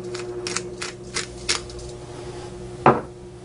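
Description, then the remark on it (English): A pepper mill is twisted over a bowl, grinding cracked pepper in about five quick, rasping bursts at a steady rhythm, then a single sharp clack as something is set down, over a faint background hum. “A little bit of cracked pepper.”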